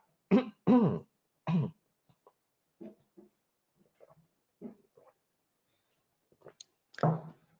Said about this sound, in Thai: จิบน้ำนิดหนึ่งนะครับ